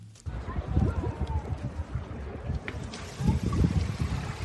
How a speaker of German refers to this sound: Moin Jungs, das ist der Sound der Pooldusche hier im Cluburlaub in Spanien.